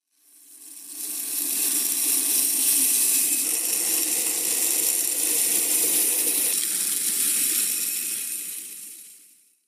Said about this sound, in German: das ist das Geräusch von Weizen, der in ein Silo gekippt wird.